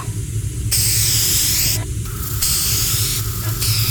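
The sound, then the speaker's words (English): Nitrogen paste is sprayed onto a suit to find, freeze and color its pressure leaks, hissing loudly in several bursts, one long continuous spray and a few shorter blasts broken by brief pauses, over a steady low rumble. “It's a nitrogen paste. It'll show any pressure leaks, freeze them, color them blue.”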